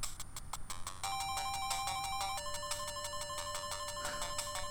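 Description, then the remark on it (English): Game Boy Color background music for a dark forest area in a video game: bright, bleepy square-wave tones playing a steady, repeating melody over a low pulsing bass, loud and continuous with no talking. “So the music's just changed.”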